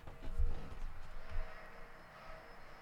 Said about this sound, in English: Let me take you over to my front door. Let's see if we can hear vacuuming, just so you can hear what I hear. Watch him stop as I fucking get to the door.